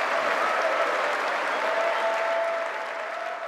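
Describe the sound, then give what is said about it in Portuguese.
Sustained applause from a large crowd of Republican Party supporters after a speech by Donald Trump, a dense steady patter of clapping at a constant loud level, with faint cheers or whistles mixed in and no speech. “Os aplausos que você ouviu vêm dos apoiadores dele do Partido Republicano.”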